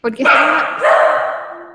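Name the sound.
dog barking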